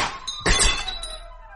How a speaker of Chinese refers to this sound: 哦，天窗的玻璃被砸碎了。嘎嘎嘎！问题是，鸭子达克说：“你的窗玻璃太薄了。”